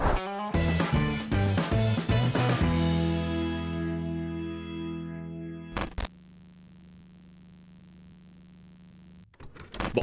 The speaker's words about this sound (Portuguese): Então, roda a vinheta aí que eu já volto com o conteúdo.